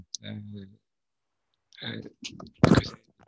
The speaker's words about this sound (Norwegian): Jeg får tilbakemelding om dårlig lyd. Da håper jeg at jeg ble bedre nå når jeg justerte mikrofonen.